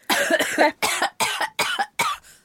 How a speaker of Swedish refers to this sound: Gud du hostade